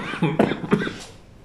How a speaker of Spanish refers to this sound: Perdón. Yo sigo con mi pues, tos aferrada.